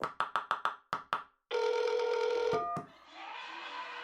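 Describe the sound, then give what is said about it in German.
A telephone call is placed again to someone: a quick run of about eight short dialing beeps, then a steady, buzzing ringing tone for about a second, followed by a hiss of line noise. No one speaks. “Ich rufe ihn nochmal an.”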